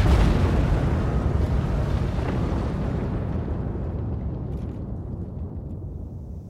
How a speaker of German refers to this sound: Sie alle suchen Schutz vor den Explosionen.